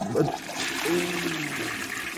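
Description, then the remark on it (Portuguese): A toilet flushes with a loud rush of water that gurgles and swirls steadily for a couple of seconds, with no one speaking. “Tem barulho de água aí? Tem efeito de água, água caindo?”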